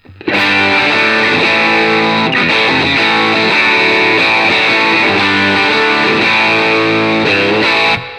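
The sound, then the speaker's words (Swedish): A distorted instrument plays sustained, dense chords through a low-cut and high-cut filter, the low-cut turned up so the bass is thinned and the high-cut lowered so the treble comes through brightly. Loud and steady for about eight seconds, with no talking. “Vrider upp low-cutten så, så, att det blir mindre bas.”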